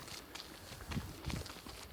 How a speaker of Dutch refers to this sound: ik ben hier nu aan het lopen langs het water, langs de kaaien. Er is niet veel volk, de zon schijnt.